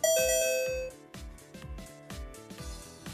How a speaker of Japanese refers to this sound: このクイズの効果音、あの、こんな感じでですね、最近、あの、お子さんの、あの、言葉の支援をするときに、あの、やってます。このクイズ、オレ、あの、オリジナルクイズを出すっていうときに、この効果音を、あの、このアプリケーションで出して